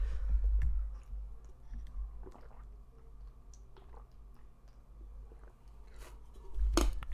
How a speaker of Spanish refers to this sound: A ver, espérenme un segundo, voy a tomar agua, voy a seguir grabando, pero voy a alejar el micrófono para que no me escuchen tragar agua.